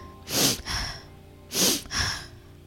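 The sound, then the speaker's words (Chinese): A voice imitates sniffling: two pairs of quick, airy snuffs through the nose, each pair a double sniff, with a short pause between the pairs. Moderately loud, no talking. “他吸吸鼻子，”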